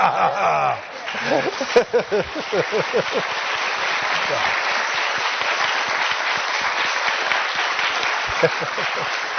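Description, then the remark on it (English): An audience at a School of Education event breaks into sustained applause for a visiting Secretary after a talk, a dense steady patter of clapping that carries on for several seconds, with a voice speaking briefly at the start before the clapping takes over. “So please, another round of applause for Secretary.”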